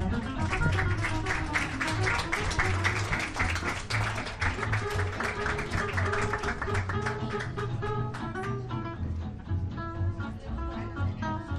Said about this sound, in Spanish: así que lo recibimos con un aplauso, por favor.